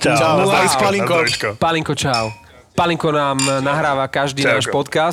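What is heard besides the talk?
glasses clinking together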